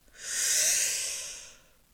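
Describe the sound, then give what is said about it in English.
A single long, airy inhalation drawn in through the nose, steady, swelling over about a second and a half before tapering off, with no talking. “And I'm breathing in through my nose”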